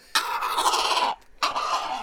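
A rescued grey heron at a small zoo and rescue station gives harsh, rasping calls mixed with a rush of flapping wings, in two bursts: one long, then a brief pause and a shorter one.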